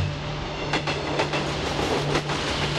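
A train rolls steadily along the rails with a low rumble and a hum, its wheels clicking over the joints in an uneven clickety-clack rhythm. No one speaks.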